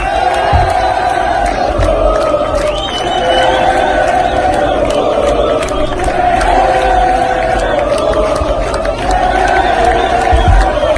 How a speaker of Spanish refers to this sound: ¿Alcanza a traducirse, a escuchar eh, qué es lo que eh, están cantando los hinchas de Flamengo en Río de Janeiro?